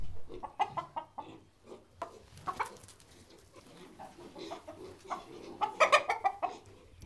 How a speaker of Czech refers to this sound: Tak teď to vypadalo, že si kohout vestfálské nosné slepice povídá se svými spolubydlícími přeštickými prasaty ale on se spíš bál toho, že mu naruším jeho teritorium.